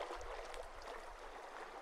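Gentle waves wash softly onto a beach in a steady, quiet hiss of water with a low rumble underneath, with no voices, on a cool evening as the sun sets.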